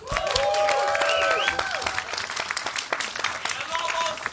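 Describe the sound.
A crowd applauds with dense, sustained clapping, joined early on by voices calling out and cheering over the top, then the clapping thins slightly but keeps going to the end.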